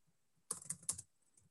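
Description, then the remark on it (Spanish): A quick flurry of keyboard typing as someone types notes, several crisp key clicks in rapid succession lasting about half a second, clear with no voices around it. “Claro, ahorita no, estoy anotando, ¿no?”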